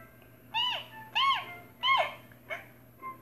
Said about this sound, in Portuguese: Então, o canário cantor se levantou e na sua frente estava o Quero Quero, um pássaro com um grito bem agudo.